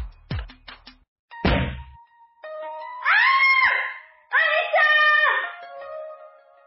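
A sharp thwack and a heavy impact thud as a speeding car deliberately hits a woman about to get into a taxi, knocking her onto the asphalt. Then one of her friends who saw it lets out two long, high, wavering screams of shock, loud, with no speech around them.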